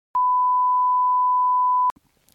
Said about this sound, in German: Wobei doch, den kann ich an der Stelle nennen, weil wir piepen das raus und den müssen wir rauspiepen.